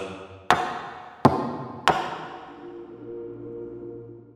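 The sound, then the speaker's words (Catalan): Three sharp knocks on a table, evenly spaced about two-thirds of a second apart, each leaving a brief resonant ring before a soft, steady low hum settles in. No one speaks. “Piqueu tres cops sobre la taula.”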